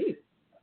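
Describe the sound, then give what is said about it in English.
A single short sneeze bursts out at the start, quick and fairly soft, followed by near silence and a faint murmur. “Bless you.”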